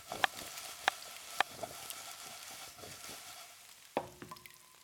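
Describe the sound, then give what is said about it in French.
Food sizzles steadily in a pan in a kitchen with a broad hiss, punctuated by a few sharp clinks of utensils and a brief clatter near the end; no one speaks. “Plaques de cuisson, ustensiles et appareils de cuisine. Tout est là pour vous permettre de vous régaler n'importe quand.”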